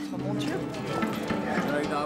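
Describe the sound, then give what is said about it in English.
Horse hooves clip-clop in a loose, uneven rhythm on soft ground in an arena as horses are introduced to it, partly buried under a person talking steadily over them. “This morning, we're introducing our horses to the arena, and we're getting our bearings with regard to the scenery, which moves around.”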